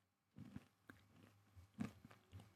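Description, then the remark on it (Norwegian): Moist crunching as a person eats granola mixed with yoghurt, with several irregular bites and chews over a couple of seconds, a louder crunch near the end and no talking. “Det knaser inni hodet.”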